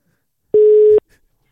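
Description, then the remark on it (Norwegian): A single steady telephone ringback tone sounds once, a loud, clean electronic beep lasting about half a second, then silence follows. No one speaks. “Jeg, jeg ringer, jeg.”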